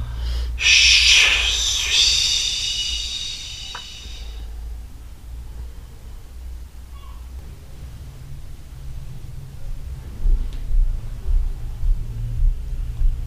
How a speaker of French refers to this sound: Ça, ça fait le bruit d'une respiration.